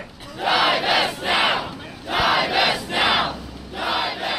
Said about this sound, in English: Some hundred protesters are standing in front of the gold dome of the Massachusetts State House. They carry signs that read, Climate Justice Now and Break Up with Fossil Fuels. But these aren't your usual climate activists.